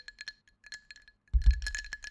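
Ice cubes rattle and clink against a glass of Orangina, first in a few light, scattered taps, then in a louder, busier jostle with a low thump as the glass is moved.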